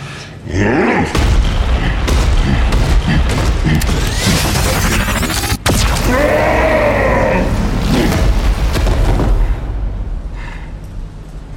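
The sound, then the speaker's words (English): A loud, sustained sci-fi blast from a coma cannon roars for about ten seconds, dense and rumbling with warbling, rising tones through the middle, then tapers off slightly at the end. “The coma cannon would appear to be highly effective.”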